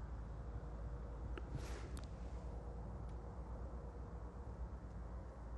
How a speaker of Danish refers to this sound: Der holder en bus nummer 14